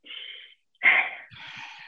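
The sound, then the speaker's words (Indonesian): A deliberate breath drawn in, a brief pause, then a strong, airy exhale with a trailing breathy rush. No talking. “Tarik nafas, buang”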